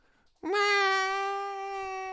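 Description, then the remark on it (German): A voice imitates a cat meowing while being carried through town: one long, loud, sustained nasal miaow, holding steady for well over a second before trailing off. “Das heißt, ich gehe mit dieser Katze durch die Stadt und wirklich so, miau”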